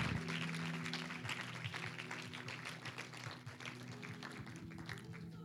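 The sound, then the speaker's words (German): A crowd of people applauds steadily for Jesus after a prayer, dense overlapping claps continuing throughout, with a low sustained musical tone humming underneath. “Lass uns Jesus einfach einen Applaus geben.”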